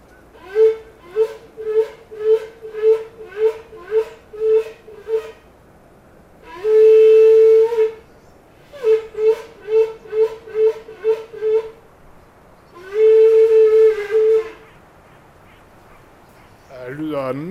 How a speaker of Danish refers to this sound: Men det sjove var, at øh, ved at grave i hornet, så kunne jeg lave et hul og puste i den. Ja, og det lyder mærkeligt,